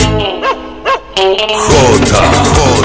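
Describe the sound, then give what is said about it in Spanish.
A dog lets out two quick, high-pitched barks a moment apart, then a louder, dense wash of sound swells up and continues to the end. “¡Canta el perro!”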